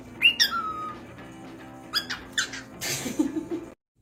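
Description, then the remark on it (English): A parakeet held up to a mirror lets out a burst of shrill squeaks and harsh, word-like squawks that resemble a swear word, in a few quick bursts, with a steady low hum underneath and no human voices. “Cussing Parakeet”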